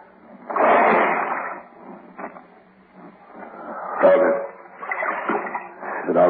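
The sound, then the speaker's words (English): A heavy splash as someone drops down into water only waist deep, followed by softer sloshing and churning water that comes and goes, with faint voices in the background. “You drop down there first. I don't know how deep the water is.”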